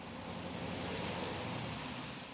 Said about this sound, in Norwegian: Biler krysser broen over elva Mosel. Før de er kommet opp i fart, er de allerede inne i et annet land.